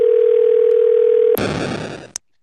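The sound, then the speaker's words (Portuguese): A steady, unbroken telephone dial tone hums for over a second as a phone call is placed, then abruptly gives way to a rush of loud, hissy line noise that ends with a sharp click. “Vou ligar pra ele aqui só um pouquinho.”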